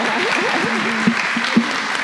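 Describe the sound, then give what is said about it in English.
A crowd claps steadily, a dense wash of overlapping hand claps with a couple of sharper individual claps standing out, sustained throughout with no one speaking. “Um, also, before you pray, can we just give a round of applause for our panelists and our moderator?”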